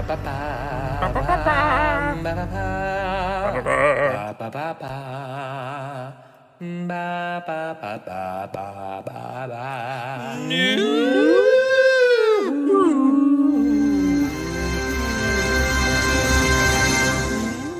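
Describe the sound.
Two hosts hum a wavering theme tune, their pitches sliding and rising in places, with a short break partway through before the humming swells louder toward the end.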